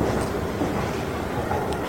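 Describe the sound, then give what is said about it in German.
A steady, dense wash of rumbling noise fills the hall of the Westbahnhof railway station with its shops and bustle, with a train moving, constant and fairly loud with no distinct voices standing out. “Ja, ich habe noch ein bisschen Zeit, bis der Zug abfährt und schlendere noch ein wenig durch die Bahnhofshalle mit ihren Geschäften und mit ihrem bunten Treiben.”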